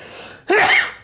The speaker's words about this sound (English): a big sneeze?